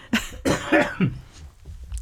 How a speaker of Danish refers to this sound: Undskyld, jeg skal simpelthen lige... Ja, men du hoster bare.